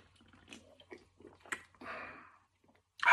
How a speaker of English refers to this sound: Need a quick sip.